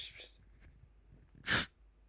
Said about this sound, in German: wir machen uns erstmal noch ein Getränk auf